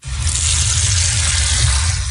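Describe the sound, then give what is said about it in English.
A faucet runs steadily, water pouring in a continuous, fairly loud hiss with a low rumbling undertone, unbroken from start to finish and with no voices. “Winter Springs residents may think twice about turning on the tap.”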